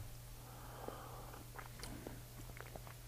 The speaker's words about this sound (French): Moi, je prends une gorgée de café avant.